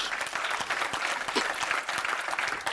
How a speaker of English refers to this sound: And how he does that, I'm waiting while you clap your hands, and then I'll finish.